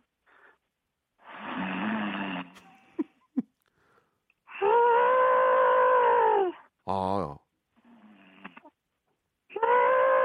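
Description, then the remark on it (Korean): A person imitates a friend's heavy "elephant-type" snoring with their voice: long rasping inhales and loud harmonic trumpeting snorts, repeated several times in close succession, with a brief breathy pause between bursts. “이번에는 그 유형별 코골이 한번 해보겠습니다.”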